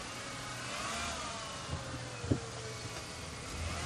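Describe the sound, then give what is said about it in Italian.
A car engine hums steadily and builds as the vehicle accelerates, a continuous rumble with a couple of brief knocks partway through and no voices. “Mi passa a prendere in macchina, altrimenti stanotte non troverò niente per tornare a casa.”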